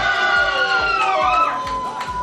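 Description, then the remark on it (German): A table of quiz guests, the winning table with 14 points, seated relatively near the host, cheers loudly, a dense tangle of shouting, whooping voices held for a couple of seconds, with a steady rhythm of low thumps pounding underneath. “Und die sind relativ nah bei mir dran, deswegen glaube ich, konntet ihr sie gerade ganz gut hören.”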